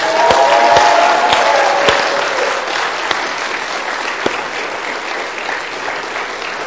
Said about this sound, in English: Yeah, we're, going to be uncomfortable unless we clap, so let's clap. Go ahead and clap.